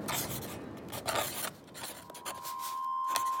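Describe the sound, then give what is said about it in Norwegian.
A pen scratches quickly and steadily across paper in short rasping strokes, fairly quiet, with no voices, as a man writes furiously in his diary. “Han blir sengeliggende for første gang i sitt liv, og han skriver rasende i dagboken sin.”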